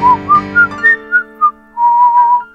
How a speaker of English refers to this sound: she whistles a short tune